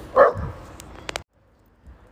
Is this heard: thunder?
no